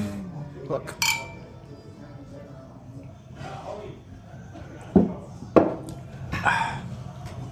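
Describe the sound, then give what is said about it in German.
Glasses clink together several times in a toast, sharp bright taps, the loudest two in quick succession near the end, with people talking softly underneath. “Ah ja, oh, Prost, Prost, Prost, Herren.”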